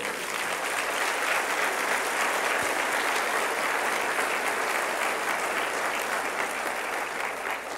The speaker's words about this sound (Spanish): ¿No le das un aplauso al Señor por eso?